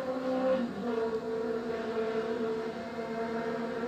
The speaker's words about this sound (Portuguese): Moto filha de uma puta.